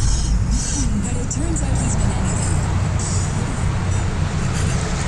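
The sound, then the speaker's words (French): Steady, dense roar of traffic on Autoroute 40, the Métropolitaine, also called the Autoroute Félix Leclerc, with constant low rumble and passing vehicles, loud and continuous throughout, with some faint voices or noises mixed into the wash. “Comme vous avez pu entendre, il y a beaucoup d'activités à euh, l'entour de la métropolitaine. Autoroute 40 qui porte en passant le nom de l'autoroute Félix Leclerc, faut pas l'oublier.”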